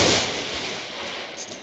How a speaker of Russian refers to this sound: Это гром.